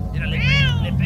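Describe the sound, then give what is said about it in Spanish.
A single drawn-out cat meow that rises and falls in pitch, fairly loud, over a steady low background hum with faint murmuring. “Y el gato, ¡ah! como que saca de onda.”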